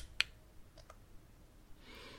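A single sharp, bright click from an app interface as its menu is closed without carrying out an action, followed by a couple of softer ticks and a faint hissy swish near the end, with no talking.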